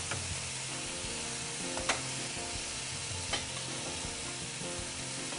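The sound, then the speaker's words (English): Sea scallops, golden and crunchy on top, sizzle steadily in a hot pan as they are flipped, a dense, even crackle throughout, with two sharp clicks of a utensil against the pan around two and three seconds in. No one speaks. “I am going to flip my sea scallops.”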